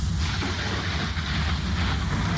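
Thunder rolls in a deep, continuous rumble with a heavy low end during a thunderstorm, holding fairly steady and loud for a couple of seconds with no voices over it.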